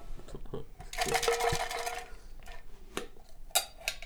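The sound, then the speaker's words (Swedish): A jar of paper slips is shaken, before a slip is drawn from it, in a quick, dense rattling burst lasting about a second, followed by a few scattered clicks and taps as it settles. No one speaks. “Du ska få dra en lapp i burken. Okej. Skaka den.”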